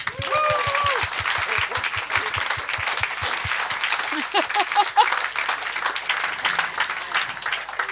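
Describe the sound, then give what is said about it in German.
An audience breaks into sustained applause, a dense wash of many hands clapping steadily at a fairly loud level, with a few voices and laughs mixed in at the start. “Jetzt könnten wir nochmal klatschen.”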